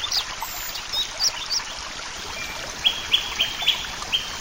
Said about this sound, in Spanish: escuchamos algún pájaro, parece un venteveo